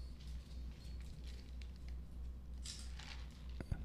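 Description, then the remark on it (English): Playing cards being flourished: soft, papery flicks and riffling bursts come in quick irregular clusters, with a sharper snap near the end, all fairly quiet over a low steady hum. “so like like a lot of people are familiar with like shuffling cards like this, right? Uh, but flourishing is a little bit different, so I might do uh, something like this.”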